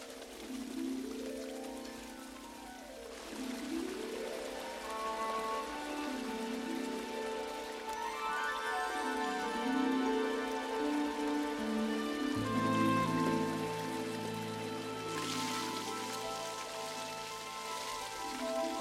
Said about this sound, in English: Oh, oh wow! That's you beautiful. guys, look! It's a beautiful waterfall!